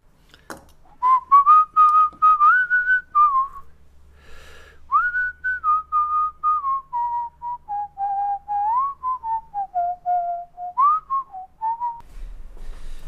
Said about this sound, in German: Und er, er, er pfeift. Er pfeift